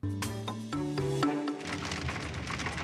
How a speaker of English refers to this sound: That was so nice out, and now all of a sudden it's stormy. The storm's coming.